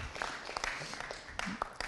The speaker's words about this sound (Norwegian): Applaus til han. Applaus. Veldig bra. Kjempebra. Kjempebra.